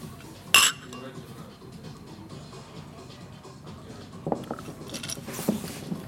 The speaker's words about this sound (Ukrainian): Ну це, звісно, заєбісь, давайте цокнемося.